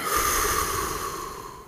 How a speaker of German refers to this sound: Und nimm einfach mal wahr, wie sich dein Bauch hebt und senkt. Einatmen und wieder ausatmen.